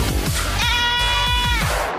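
A single drawn-out goat bleat, loud, wavering for about a second over a steady thumping beat in the background.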